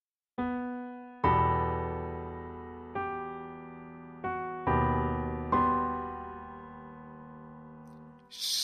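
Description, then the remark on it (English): Sustained orchestral film-score chords, about six struck in succession, each ringing and slowly fading, with the harmony sliding down a half step between chords, ending in a brief noisy burst. “So here, instead of a solid footing to a solid footing, there is this half step down from the first chord to the second chord.”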